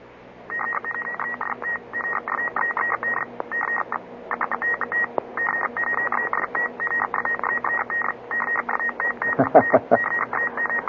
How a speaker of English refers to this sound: I'll let you hear some very fast Morse code so you can hear what it sounds like on the international level.